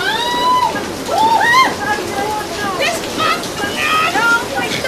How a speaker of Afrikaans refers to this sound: Ooh, o genade, dis te laat die water spoel oor al in. Gryp jou tas en maak dat jy hier uitkom.